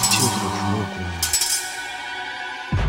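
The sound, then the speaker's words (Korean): Two knife blades held in a shaman's hands strike together with bright metallic clinks, leaving high, shimmering rings that hang over a low sustained drone. A second sharp clash sounds near the end. “그때 양손에 들린 칼날이 서로 부딪히면서 쨍한 소리가 울려 퍼지는데 그 소리가 매일 밤 지독하게 청년을 괴롭혔던 그 새소리였던 거예요.”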